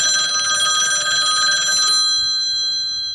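A telephone ringing tone sounds for an outgoing call to Niklas Sandberg: one bright, sustained ring lasting about two seconds, then trailing off as fainter tones linger. No one speaks.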